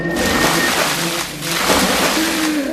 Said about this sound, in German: Mehrere Eimer Wasser ergossen sich über ihn.